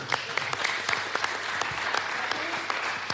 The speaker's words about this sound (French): Ah, on peut l'applaudir, on peut l'applaudir.